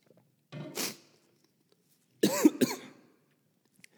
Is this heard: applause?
no